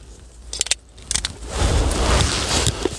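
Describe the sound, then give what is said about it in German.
Rechargeable batteries being inserted into a camera: two short bursts of sharp plastic clicks and rattles, then a steady rustling, scraping handling noise. No one speaks. “Jetzt machen jetzt einmal die Akkus in die, in die äh, Kamera.”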